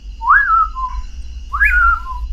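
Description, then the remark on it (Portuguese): Two clear whistled calls, each a rising then falling slurred note, spaced about a second apart, a human voice imitating the pauraque nightjar's call over a low background hum. “Então, tem, esse, tem esses, esses dois cantos são da mesma espécie, o Bacural e o Curiango são é, vozes da mesma espécie”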